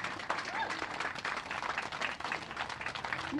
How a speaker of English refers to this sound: So, I think a round of applause to everyone for gathering around.